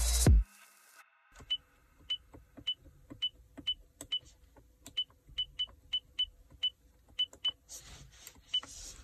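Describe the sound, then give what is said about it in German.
A string of short, high electronic beeps, about a dozen, chirping at irregular intervals, each one crisp, with faint clicks of button presses underneath and no talking: the key tones of a car's volume control buttons being pressed. “Also ich habe mal vom, äh, vom Lautstärkeregler habe ich mal hier die Tasten, die Tastentöne aufgenommen.”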